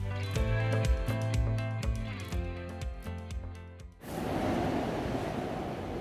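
A short, lively musical jingle with melodic tones and crisp percussive hits plays for a few seconds, then cuts off abruptly into a steady wash of surf-like noise. No one speaks.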